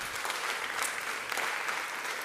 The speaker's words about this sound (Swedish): Ja, det är värt en applåd.